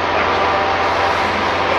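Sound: helicopter flying overhead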